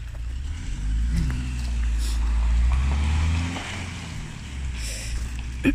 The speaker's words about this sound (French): Oh, une voiture. Je la laisse passer. C'est rare.